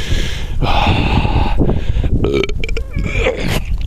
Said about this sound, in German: Ich hab wieder bisschen, ich bin wieder am Blaserülps, weißt du? Ich, ich rülps gerade wieder hier. Ich blubber wieder hier rum, Weißt du?